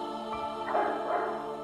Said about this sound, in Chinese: 邻居家的小狗听到了熟悉的声音后，开心的汪汪叫起来。